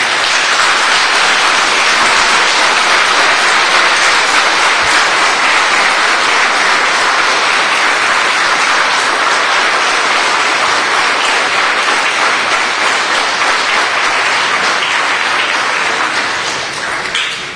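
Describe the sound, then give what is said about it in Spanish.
An audience applauds the Divine Father Jehovah steadily for about seventeen seconds, a dense, even wash of many hands clapping at full loudness before tapering slightly at the end. “Bueno, hermanitos, yo pido un cariñoso aplauso para el Divino Padre Jehová, hermanitos.”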